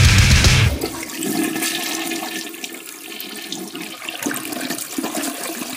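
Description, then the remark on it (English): A toilet flushes: a loud rushing whoosh of water at first, then a steady gurgling swirl as the bowl drains and refills, with no voices. “You're listening to 66.6 FM, Radio TOVH, The Flush.”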